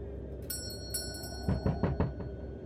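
A doorbell chimes briefly, then a quick run of heavy bangs on a door follows, about five thuds close together, all fairly quiet with no voices; someone bangs hard and rings the bell at a shut shop with lodgings above, on a deserted street.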